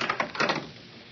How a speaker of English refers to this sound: Did you, did you see that? The door opened by itself. Obviously, we are being invited in to have a look round.